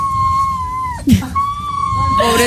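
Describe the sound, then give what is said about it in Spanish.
A female dog, Daura, whines on a train in long, wavering high-pitched tones that sound almost like singing, with a brief yelp partway through, over a low rumbling background. “No le gusta mucho ir en tren, entonces se pone a llorar, pero parece que está cantando.”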